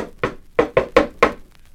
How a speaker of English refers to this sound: Uh, must be uh, must be behind that door there. Yeah. Well, open it. Well, maybe I better knock first. Yeah, well, go ahead. Go ahead.